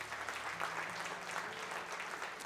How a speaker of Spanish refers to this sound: Gloria a Dios. Da un aplauso a Cristo.